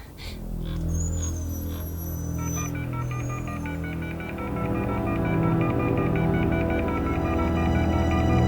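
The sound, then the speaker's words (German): Electronic mobile phone keypad tones sound as someone dials an emergency doctor on a woman's phone, a steady, layered stream of bright beeps over a low droning hum, moderately loud, with no voices. “nimm ihr Handy und verständige sofort einen Notarzt.”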